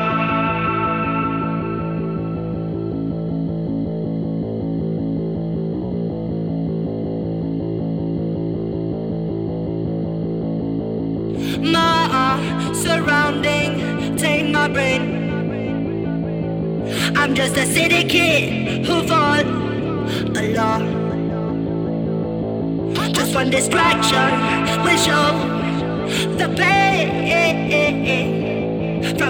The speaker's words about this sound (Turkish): Siz de bu şarkıyı dinleyin.